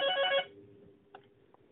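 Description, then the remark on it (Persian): A telephone rings in a short burst of bright, buzzy trilling tones, then cuts off, leaving a faint hum and a couple of soft clicks. “من عذر میخوام ازتون تلفن بود”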